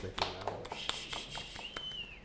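Light, scattered applause from a small group, irregular claps over a couple of seconds at a modest distance, with a thin high whistle-like tone running underneath.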